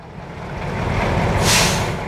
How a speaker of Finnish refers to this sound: Neuvostopanssareiden sotaista ääntä ei oltu Tallinnan kaduilla kuultu 45 vuoteen. Vuonna 1991 ne olivat taas liikkeellä.